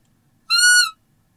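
A deer lure whistle, used to lure a roe buck by imitating a doe calling her kids, gives one short, high piping note lasting about half a second, bright and reedy with a steady pitch, sounding alone against near silence.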